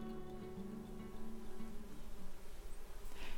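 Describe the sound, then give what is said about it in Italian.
Bees buzz steadily and fairly softly, a continuous droning hum that wavers slightly in pitch as the insects move around. No voices are present. “Così spesso le api si posavano su di loro per raccogliere la preziosa polvere.”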